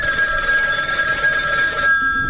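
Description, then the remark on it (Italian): An anonymous telephone call comes in at the Carabinieri station in Gradisca, Gorizia, Italy, at 22:35 on 31 May 1972: a steady, bright electronic trill rings clearly for about two seconds, then cuts off abruptly, leaving a quiet background hum, with no voices. “Poi, alle 22.35, arriva una telefonata anonima.”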